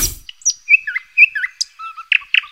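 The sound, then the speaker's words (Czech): A nightingale sings clearly: a quick run of varied whistles, chirps and slurred notes, ending in a few rapid, buzzy trills. No voices. “Tak takhle krásně zpívá Slavík.”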